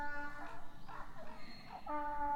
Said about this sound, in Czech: To je osel. Právě jste slyšeli osla. To je skoro jako sirény, ty jo. A tam pobíhají kolem ohrady nějaký děti, tak ho asi vyrušili chudáka.